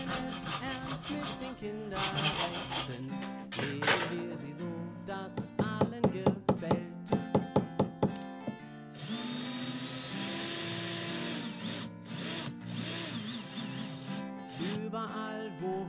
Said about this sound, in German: Und dann geht es los. Sie müssen sägen, bohren, hämmern, leimen und alle Bretter gut zusammenbringen.